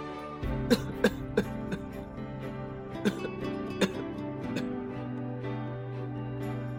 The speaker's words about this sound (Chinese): 可象老爹却靠在树干上，咳嗽得越来越厉害了。